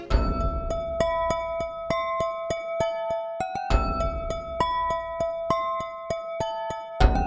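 Wine glasses struck with small sticks by Dan Newby play the Skyrim music, a run of bright ringing pitched tones in a steady rhythm, each tap chiming and sustaining over the others, with no voices.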